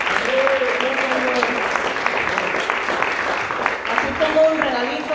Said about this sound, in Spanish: Amén. Amén. Gloria al Señor. Un aplauso para misión.